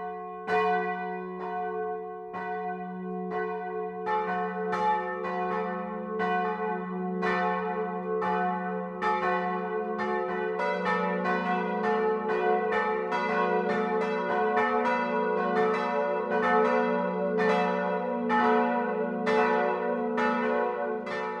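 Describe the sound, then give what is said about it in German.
The bells of a hundred-year-old church in Walting, Landkreis Cham, Upper Palatinate, Bavaria, ring out the 12 o'clock noon peal on Bayern 1, several bells striking in a steady, overlapping rhythm with a sustained low hum and bright ringing overtones, loud and continuous with no voices. “Das Mittagsläuten kommt heute aus Walting im Oberpfälzer Landkreis Cham.”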